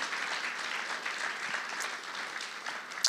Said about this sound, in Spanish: ¿Alguien puede darle un aplauso al Señor? Amén.